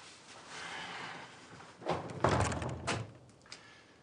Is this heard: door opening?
yes